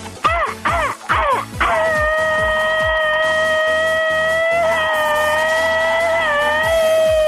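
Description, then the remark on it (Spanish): A loud machine-gun-like scream: four quick staccato yelps fire off in rapid succession, then break into one long, sustained high-pitched wail that wavers slightly before ending. “Y ese jueves lo recibimos con un grito ametralladora”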